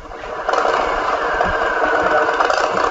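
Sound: motorcycle engine through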